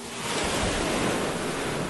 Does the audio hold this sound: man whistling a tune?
no